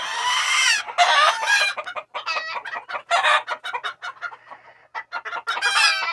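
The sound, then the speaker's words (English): Barnyard chickens cluck and squawk in a busy, overlapping run of sharp calls and chatter, fairly loud, with a brief crowing-like cry near the start and no people talking. “And by the way, this is an ASMR of barnyard noises.”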